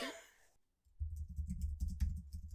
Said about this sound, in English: I hear you typing away. I'm typing away.